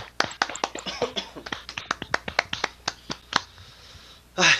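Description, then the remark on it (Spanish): Brief applause from a few people: about twenty sharp, irregular hand claps that gradually thin out and stop, followed by a short burst of rustling noise at the end. No one speaks. “Un aplauso.”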